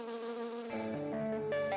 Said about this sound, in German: Und eine weitere Studie hat belegt, dass Pflanzen auf bestimmte Frequenzen bestäubender Insekten reagieren. Brummt es, steigern sie die Nektarproduktion.